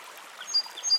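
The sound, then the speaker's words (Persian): A steady, soft rush of flowing river water fills the background, with faint high chirps of swallows briefly piercing through. There are no voices. “ببین که آیا صداهایی رو که در این فضا وجود دارن میشنوی گوش بسپر به صدای رودخونه صدای زنبورها خشخش برگ درختان در دوردست صدای هیاهوی پرستوها”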